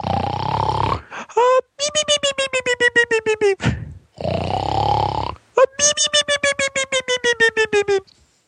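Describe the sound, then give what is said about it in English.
A person loudly imitates snoring like Shemp of the Three Stooges, done on cue at an acting audition: two long, rasping inhaled snores, each followed by a rapid series of high, fluttering whistle-like pulses, repeated twice. “And the only thing I could think to do was to snore like Shemp in the Three Stooges.”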